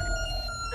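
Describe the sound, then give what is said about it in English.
An emergency alarm sounds as a steady, piercing electronic tone with bright harmonics, holding one pitch at an even loudness for the whole brief moment, with no voices present. “What is that? It's an emergency alarm.”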